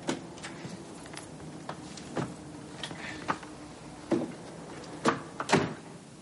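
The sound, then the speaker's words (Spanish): An apartment door is being opened: a string of sharp clicks and light knocks, then a few louder thuds near the end, with no voices. “De pronto escucha la puerta que se abre.”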